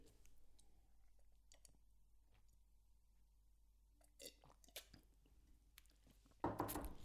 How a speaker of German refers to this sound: Ich trinke jetzt mal einen Schluck Kaffee und denke mir mal meinen Teil dabei